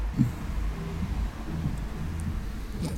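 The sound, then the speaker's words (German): Muffled, bass-heavy music thumps from the car stereo of a neighbour's BMW 3 Series Touring parked outside, its low notes droning steadily with little treble coming through. No one speaks. “Aber was ihr hört, ist jetzt Live-Musik von DJ Nachbar der mit seinem Auto vorgefahren ist.”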